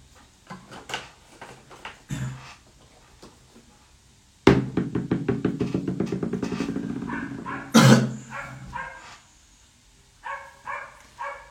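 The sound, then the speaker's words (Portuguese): Dogs bark in scattered bursts, then a loud, rapid run of yapping mid-clip, with a few more barks near the end; no one talks over them. “os cachorros latinos sempre me ajudando.”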